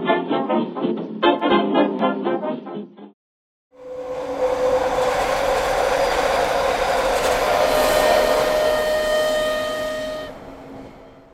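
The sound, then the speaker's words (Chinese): A train travelling to Alishan, Taiwan, rolls along the rails with a steady, loud rumble and hiss, steady pitched whistle-like tones running through it for about six seconds, following a short pause after an opening burst of other sound. “他独自搭着火车来到阿里山游玩。”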